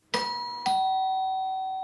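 A doorbell chimes twice in a clear ding-dong, each bright tone ringing out and slowly fading, fairly loud with no voices.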